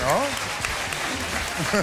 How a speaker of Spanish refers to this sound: Un aplauso para ellos, se van de escena y la semana que viene nos cuentan. Hoy estamos haciendo el programa en directo desde el auditorio El Beatriz de Madrid